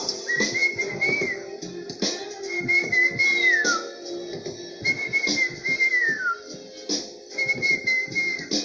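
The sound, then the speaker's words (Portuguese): A person whistles a small bird's song in four repeated phrases, each a high, wavering tone that rises and then slides downward, with short gaps between them over a busy background. “E o passarinho estava lá.”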